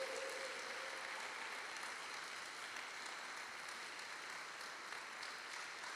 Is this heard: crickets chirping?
no